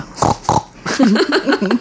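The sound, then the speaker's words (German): A person in a studio imitates a pig, starting with two short nasal snorts and then a run of rapid, rhythmic grunts, loud, with no real animal present. “grunzt schon hier bei uns im Studio.”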